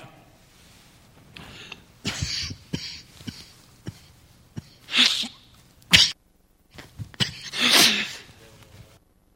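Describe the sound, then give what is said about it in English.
Several loud coughing bursts come in irregular spurts, with short quieter gaps and small throat sounds between them; nobody speaks. “But I'd cough to let you think about those verses.”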